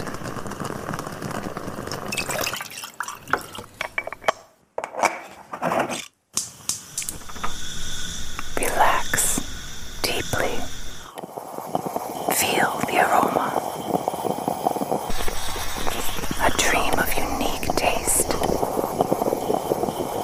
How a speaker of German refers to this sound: Und auch den Klang des in der Mokka aufsteigenden Cafés vermarktet Bialetti heute als eine Art Wellness-Therapie für den stressigen Alltag, als Bit of Dolce Vita. The Mocha Sound.